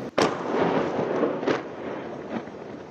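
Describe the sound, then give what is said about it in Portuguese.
A sharp, loud explosion bursts out, then a long rumbling roar with two softer blasts following at irregular intervals, from Israeli bombardment of the Gaza Strip, which also hit the territory's port. No voices. “O bombardeio também atingiu o porto do território.”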